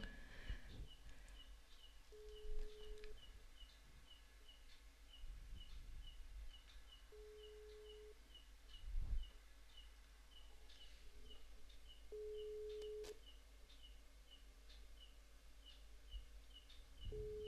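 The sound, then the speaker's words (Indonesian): A phone's ringback tone repeats as steady one-second beeps, about five seconds apart, fairly faint against a quiet background of chirping birds or insects; nobody speaks. “udah berdering ya udah masuk ya oke okay.”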